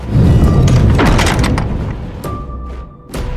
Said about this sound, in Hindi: church का दरवाजा बंद हो गया